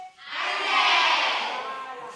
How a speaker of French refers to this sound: Quand on vous voit avec les filles, avec les adolescentes, vous vous mettez face à elles, vous commencez par des échauffements, taper dans les mains, faire du bruit, taper des pieds, euh, crier aussi.